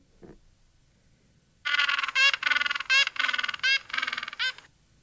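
A penguin gives a loud, braying call made of a rapid run of harsh, honking pulses, lasting about three seconds after a brief soft knock, with no talking.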